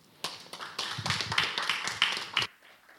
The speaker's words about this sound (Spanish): Así que le quiero, le quiero dar las gracias por, por haber hecho un hueco en sus quehaceres para venir a San Sebastián y para hablarnos de Dostoyevsky. Y os pido un aplauso para ella.